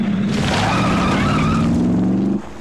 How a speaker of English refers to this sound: Sounds like a lot of traffic in your library.